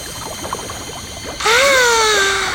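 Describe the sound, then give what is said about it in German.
Water bubbles up from a cellar vault with scattered short blips and gurgles. Then a loud, hissing wash cuts in with a wavering, slowly falling tonal whine. “ah, sieht ganz so aus, als blubberte es aus dem Kellergewölbe.”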